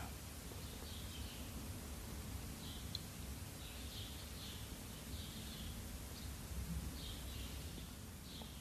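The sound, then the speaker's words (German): Faint bird chirps repeat every second or so over a steady outdoor hiss, picked up by the microphone, light and thin against the constant background noise. No voices. “Vielleicht fühlst du oder hörst du ein Vogel zwitschern, was auch durch das Mikrofon hier zu hören ist.”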